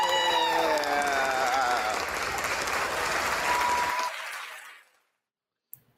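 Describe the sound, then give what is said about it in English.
An audience at the New Leaders Council Convention in Philadelphia in July applauds steadily and loudly for about four seconds after a speech, with a few voices whooping over the clapping at the start, then the applause quickly fades away to silence. “You like the applause went on.”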